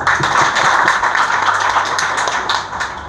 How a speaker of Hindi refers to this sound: ताली दो प्लीज